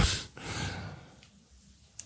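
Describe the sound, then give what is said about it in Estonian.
A single drawn-out yawn from a man: a long breathy inhale swelling into a softer airy exhale that trails off over about a second, with a faint click at the end. “hakkas haigutama.”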